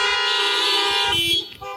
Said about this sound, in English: Once more, just because I love to hear it. If you love Jesus, honk your horns.